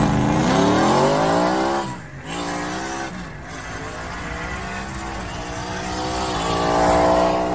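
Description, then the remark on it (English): A race car's engine roars loudly from inside the cockpit, revving high with brief dips as it shifts gears, then climbing again, with faint tire squeal under the constant drone. “Okay, I mean, and then there's an in-car video right here.”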